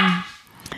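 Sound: dog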